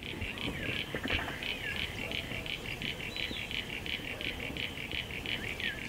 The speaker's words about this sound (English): You hear that one like marbles? That's Crinia signifera, the common eastern froglet.